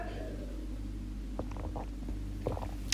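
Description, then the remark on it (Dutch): Someone sipping water: a few soft gulping and swallowing sounds with a faint click near the end, over a steady low hum and no talking. “Ik moet trouwens even een slokje water pakken.”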